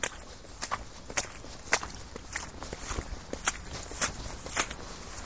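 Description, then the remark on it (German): Boots squelch through wet, boggy, moor-like ground on a very wet path toward Homberg, in a steady, unhurried rhythm, roughly ten steps with soft sucking impacts and no voices. “Wie in einem Moor bremst mich der Boden, saugt meine Stiefel an und lädt mich zum achtsamen und langsamen Gehen ein.”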